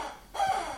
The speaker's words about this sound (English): chicken noise squawking in the background. That's my dog, Bentley, chewing on his chicken.